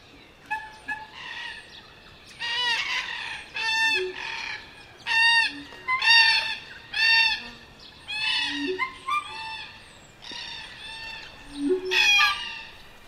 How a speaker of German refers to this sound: Kakadus, Kakadus, Krähen, Krähen, weiße Kakadus, Buschhühner. Überall Krähen, grau-rosa Kakadus, Krähen, Kakadus, Corella, Krähen, Corellas, Kakadus, Papageien, Papagei, Wellensittich, Wellensittich.